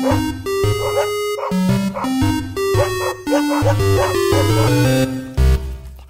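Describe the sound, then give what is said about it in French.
Dog barks and yips rapidly chopped into a bouncy, tuneful jingle for the segment "La niche à l'EMU", the pitched barks repeating in quick rhythmic bursts over a steady musical backing, loud. “Wouf!”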